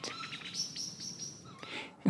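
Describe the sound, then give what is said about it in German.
A Eurasian blackbird gives sharp, repeated alarm calls amid a dusk chorus of other birds and insects, with a louder low thump near the end. “Das war jetzt die Amsel. Also die Amsel warnt.”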